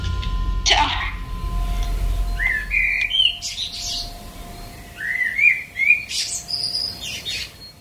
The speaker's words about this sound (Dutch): Ik word de laatste dagen steeds wakker van de vogels hier. Zo mooi.